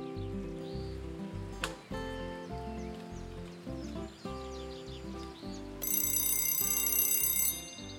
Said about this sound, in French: Le lendemain matin, à peine le réveil sonne que Nino est déjà debout.